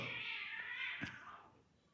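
Cats fighting: a drawn-out, strained cat yowl holds steady and then trails off, with a brief sharp scuffle sound partway through, fairly faint.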